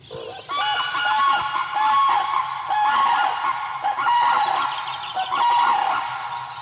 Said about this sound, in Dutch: is dit het geluid waar iedereen eh, zijn oren voor moet spitsen als ze buiten wandelen of eh, eh, in bed liggen? Ja, ja, zeker. Dit is het geluid van de kraanvogel. En ja, het wordt omschreven als een trompetterend geluid. Nou ja, dat, dat is het ook